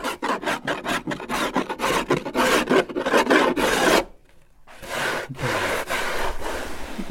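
A hand plane shaves wood at a workbench, leaving shavings, in a quick run of rhythmic, raspy strokes, fairly loud, then a brief pause before one long, continuous scraping pass.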